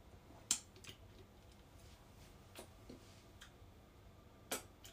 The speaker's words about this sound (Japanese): なんかクリーム舐めてる音めっちゃうるさいですよねすごいクリーム めっちゃ美味しい